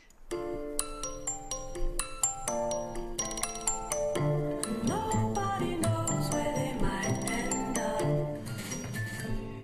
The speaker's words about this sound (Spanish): Eh, vamos a hablar de las tres primeras temporadas de Grey's Anatomy. Mm, como que escucho esa musiquita. La voy a poner ahora, mira, la voy a poner en post.